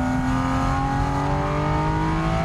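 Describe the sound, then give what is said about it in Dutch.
A powerful 4-liter sports car engine, the same engine as in the 911 GT3 and able to rev to 9000 rpm, accelerates hard as the driver shifts up, its loud, steady roar climbing in pitch as the revs rise, heard from inside the car with no talking. “Eigenlijk moet wat rustiger rijden, anders kunnen we niet eens verstaan. Even opschakelen. 4 liter groot, ja, echt snoepje.”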